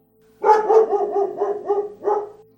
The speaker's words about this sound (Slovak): Bolo na jeho kraji a rozliehal sa odtiaľ silný štekot a brechot.